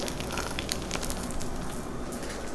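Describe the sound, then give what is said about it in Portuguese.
An egg sizzles steadily in hot oil, with a continuous hiss and scattered sharp pops and crackles throughout; no one speaks. “Put your microphone in my egg.”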